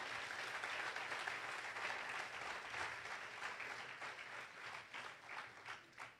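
An audience applauds the Lord steadily, a dense wash of many clapping hands that holds for several seconds and then thins into scattered claps near the end. No one speaks over it.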